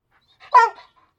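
A single sharp dog bark, fairly loud, with a brief whine-like lead-in and nothing else around it.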